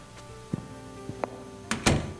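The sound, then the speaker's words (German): A door is shut: a few soft knocks and clicks of handling, then a firm thud as it closes, with no one speaking. “Und schließen Sie liebenswürdigerweise die Türe.”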